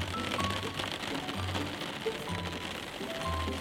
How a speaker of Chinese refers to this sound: 他长途跋涉，走进了森林，收集了噼里啪嗒的雨滴声。